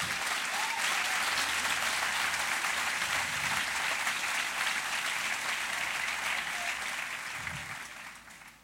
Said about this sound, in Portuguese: Se é para ele, aplauda mais forte.